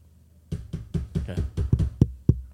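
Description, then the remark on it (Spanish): A quick series of about eight solid knocks on someone's door by a group arriving there, fairly loud, in an uneven rhythm after a brief quiet start, with no voices. “Llegan a la puerta de alguien y tocan a la puerta.”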